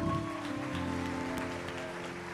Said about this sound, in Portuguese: Aplaude, ele aplaude.